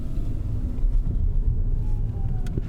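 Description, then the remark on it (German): A steady low rumble of an electric Smart car as it is switched on, with a faint thin electric whine drifting above it; quiet and continuous, with no voices. “Achtung, jetzt ist der Elektrosmart noch aus. Man hört nichts. Und jetzt ist er an.”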